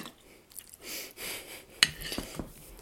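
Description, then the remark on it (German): A sharp, ringing clink of a plate against cutlery, followed by a few softer taps and scrapes, with brief rustling before it and no one speaking. “Ich habe noch einen Teller vor.”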